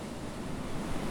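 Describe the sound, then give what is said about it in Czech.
Sea waves wash steadily onto the shore in a continuous, rumbling hiss that swells slightly toward the end, with no voices over it. “Šel dlouho a daleko, přes hory doly, přes vody brody, až přišel k širému moři.”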